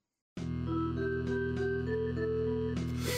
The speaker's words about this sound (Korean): 자, 지금 나오는 곡은 코에이의 명작 중의 명작, 삼국지 2의 오프닝입니다. 아, 우리, 세, 우리 세대에서 이거 모를 수가 없어요. 그러니까 명작이지 진짜. 음. 사실 삼국지 하면 딱 이 음악부터 생각나거든 사실.